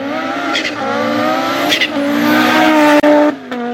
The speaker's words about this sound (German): welcher mit seinem Turbo einfach immer so schön bei jedem, bei jedem Mal schalten niest der